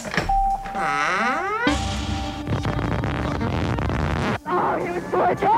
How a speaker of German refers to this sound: Wir können gleich schon mal, spiel mal nochmal den Anfangs-Jingle.